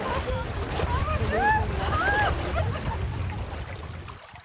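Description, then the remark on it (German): A brook at Champs-Secré, a village of 900 people in the Normandie-Maine nature park in France, 100 kilometres inland, babbles steadily with a continuous rushing, splashing murmur, while indistinct voices talk over the water until it fades out at the end. “Er plätschert ungefährlich dahin, der Bach am Treffpunkt in Champs-Secré, 100 Kilometer landeinwärts.”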